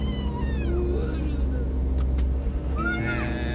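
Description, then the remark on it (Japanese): Many trucks rumble past inside a road tunnel on a weekday, a steady, loud low drone of heavy traffic with rising and falling whining engine tones sweeping through it. “向かっておりますトンネルの中ですトラックがいっぱい走ってます平日のこの時間働いてる人がいっぱいいるなって思って本当ありがたいなって思いますわ。”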